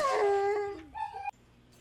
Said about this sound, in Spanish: Allá en tu colonia pobre donde escuchan un perro aullando y dicen, alguien se va a morir. O algo está viendo el perro. Está mirando la muerte.